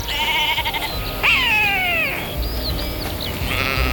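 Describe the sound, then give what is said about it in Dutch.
A sheep bleats loudly, a wavering, falling call lasting about a second, with fainter bleats and birdlike chirps over a steady outdoor background. “Terug naar het motregenende oord van lage boerderijen, schapen, melk, turfhaarden en ritueel in het veen weggeborgen gehangenen.”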